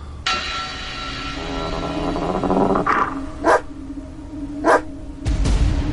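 A female dog, Nelly, growls in a low, steady rumble, broken by two sharp, loud barks, with no one speaking, while showing her teeth at night when it is dark outside.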